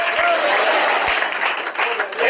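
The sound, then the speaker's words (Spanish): An audience applauds for the Lord steadily, a dense wash of many hands clapping at an even, fairly loud level with a few sharper individual claps standing out. “después ese aplauso al Señor Al Señor ese aplauso.”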